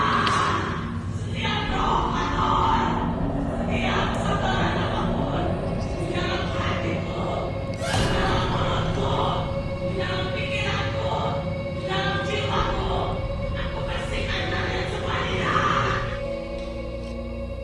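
A woman's harsh, throaty shrieks repeat one after another, loud and strained, forming an almost continuous stretch of raw screaming with a rough, grating edge.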